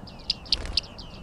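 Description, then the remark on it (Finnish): Short, bright high-pitched calls of bearded reedlings in a reed bed repeat several times in a quick loose series, with softer chirps between them against a low rumbling background, moderately loud. “Viiksitimaleita ruokoviidakossa”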